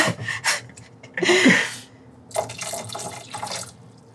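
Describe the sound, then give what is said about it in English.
Two cups of water splash and pour into a cooking pot in uneven bursts, a loud gush in the middle followed by a steadier trickling flow, with no voices over it. “I'm gonna add two cups of water. See if this gonna be enough.”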